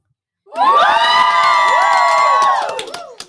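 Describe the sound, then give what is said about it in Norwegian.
A room full of girls from a first-year music and dance class cheers and shrieks at once, a loud, high-pitched wall of voices held for about two seconds before breaking into scattered shouts and fading. “Herregud, rommet er fullt av jenter.”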